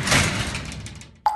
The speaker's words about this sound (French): et le son de fermer violemment le contrevent.